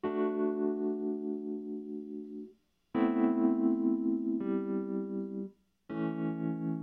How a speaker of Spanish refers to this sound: Vamos a probar el binaralizador de Dolby. Not bad. A ver, vamos a ver arriba. Vamos a subir por aquí.